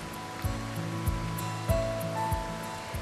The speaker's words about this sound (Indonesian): Tukat atau Kaliunda adalah sebuah sungai di pintu masuk Desa Pak Sebali.